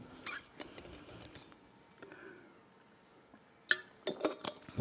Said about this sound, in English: I'm just going to take some water. Hang on.